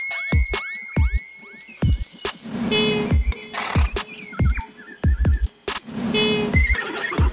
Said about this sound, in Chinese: 你没有听过无尾熊的叫声吗？